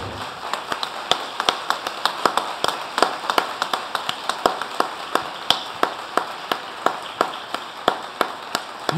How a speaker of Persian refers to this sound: یه دست به افتخارش یه بار دیگه مشتی افتخار مادرش هم بزنید آره والا خوشحال میشه